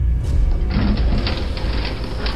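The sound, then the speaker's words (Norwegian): Elevator doors slide open after the elevator's long descent, onto dim light, with a steady mechanical rumble and a broad hiss that swells after a short pause and carries on evenly to the end, with no voices. “Dørene glir opp.”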